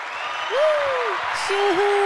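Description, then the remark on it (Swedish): A steady burst of canned applause from a soundboard button fills the whole moment, dense and fairly loud, with a gliding whistle-like cheer rising and falling over it. “tycker du inte att avsnitt 100 förtjänar en applåd ändå?”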